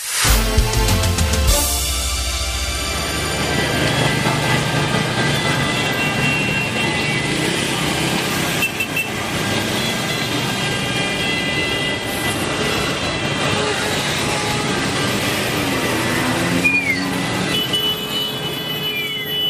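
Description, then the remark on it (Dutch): Dense, loud street traffic in southern Italy roars steadily throughout, with car horns honking over the constant engine noise. No one speaks. “Maar zo klinkt verkeer in Nederland met al dit getoeter toch nooit?”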